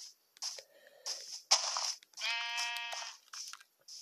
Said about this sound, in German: Hallo Schaf, so.